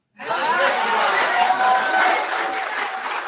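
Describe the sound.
A crowd bursts into sustained applause, steady dense clapping that starts abruptly and holds for a few seconds, with some cheering and murmuring voices mixed into the noise.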